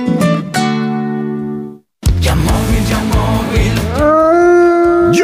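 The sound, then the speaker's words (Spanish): A wolf howls loudly, a long sustained cry that breaks off briefly, then returns amid a dense, noisy backdrop with a rising drawn-out howl near the end, in a Halloween-themed advert for Yamóvil. “estamos en Halloween y los lobos acechan.”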